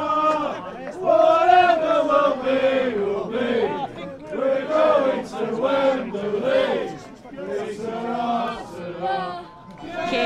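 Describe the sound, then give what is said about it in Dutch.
Football ultras chant together in a stadium, a loud, sustained mass of voices rising and falling in a rhythmic, sing-song pattern that carries on without pause for the whole stretch. “Ja, en de ultra's die geloven er wel in.”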